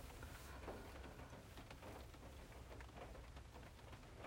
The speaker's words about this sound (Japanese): ね、今日は雨ですね。これは何の雨なのかな。台風の影響なのか秋雨前線が来たのかちょっとお天気が見れてないのでえー、わからないのですが